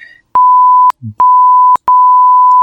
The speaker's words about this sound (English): Even if it's just that one spot where it's just a bunch of 1,000 hertz beeps